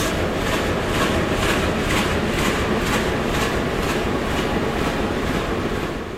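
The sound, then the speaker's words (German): A loud, steady diesel train engine drones, with a deep rumbling exhaust and a rhythmic pulsing hiss of the engine drawing in air repeating throughout, no voices present. “Wenn Sie an der rechten Seite stehen oder an der Fensterseite, da hören Sie, wie der Dieselmotor die Luft einatmet. Er braucht viel Luft und Sie hören auch das Lubbern des Auspuffs.”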